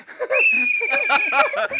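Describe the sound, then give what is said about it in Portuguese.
A whistle is blown in one long, steady, shrill blast lasting over a second, while several people talk and laugh loudly over it. “o apito mais rápido da Copa aí. O apito do assédio mais rápido da Copa.”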